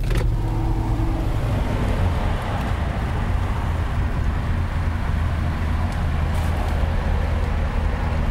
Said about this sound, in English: Somewhere between mustard and brown and it's amazing. I wonder if that's an original correct period colour. I remember seeing Allegros in that colour. You can actually hear the car, listen.